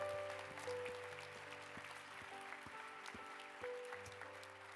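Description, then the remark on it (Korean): A church audience at an early-morning service applauds to welcome seminar attendees in a steady, dense wash of clapping that holds for the whole stretch, with sustained keyboard tones and soft rhythmic taps running underneath. “우리 한번 큰 박수로 웰컴하겠습니다.”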